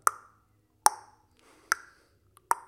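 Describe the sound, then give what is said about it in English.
A metronome ticks four times at a steady, moderate tempo, each sharp click ringing briefly with a bright, slightly pitched tone, clear with no voices. “Um, basically, I will take um, you know the metronome, the one that that thing that yep. provide a click.”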